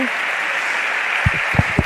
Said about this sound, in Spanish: ovación para, nueva ovación para el pregonero